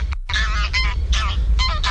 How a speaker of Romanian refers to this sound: E gas, gâscă, mă. Gâscă.